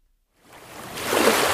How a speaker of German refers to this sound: Ja, jetzt wird unser Meeresrauschen richtig intensiv